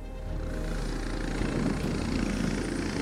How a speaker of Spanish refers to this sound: estamos viendo en imágenes eh, aterrizar a un helicóptero, presumimos que es el helicóptero de Alberto Fernández. Eh, me comentaron que a las 6 y 2 minutos más o menos partió desde la Casa Rosada hasta aquí,